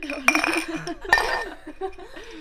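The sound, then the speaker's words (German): Two bright clinks of glasses of iced matcha latte, made with coconut barista milk and lots of ice cubes, touching in a toast about a second apart, fairly loud, with voices talking and murmuring around them. “Okay, dann erstmal Cheers.”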